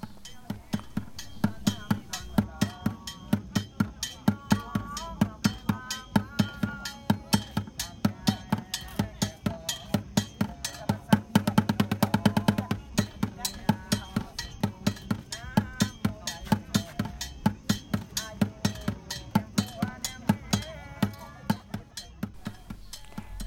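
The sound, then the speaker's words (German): Steady, loud hand drumming by young people who gather in the evening on a fairly large bridge linking two parts of a town, with a driving beat that continues for the whole stretch, metallic clinks and overlapping voices mixed into the rhythm. “dass es hier eine relativ große Brücke gibt, die den einen Ortsteil mit dem anderen verbindet, wo sich abends die Jugend trifft und unter anderem musiziert.”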